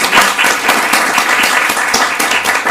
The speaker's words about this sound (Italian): Io farei un bellissimo applauso a Lorenzo Sasselli. Dario Tonani, bel applauso